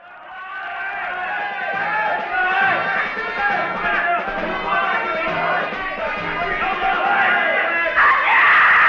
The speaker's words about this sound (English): He lets out a scream and charges directly at the police and executes a flying leap into the air.